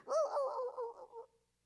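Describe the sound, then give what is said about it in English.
A voice imitates a man's dog hollering during a conversation, one loud, wavering, strained yowl lasting just over a second before cutting off, with no other sounds around it. “And the whole time, the man's dog is just hollering.”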